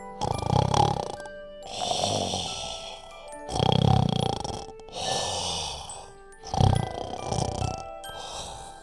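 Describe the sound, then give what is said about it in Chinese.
Loud, deep snoring of a big bear in a steady rhythm: three rumbling inhales, each followed by a breathy, hissing exhale, repeating evenly over about nine seconds with no talking. “温妮不一会儿就被一阵呼噜噜的响声给吵醒了。”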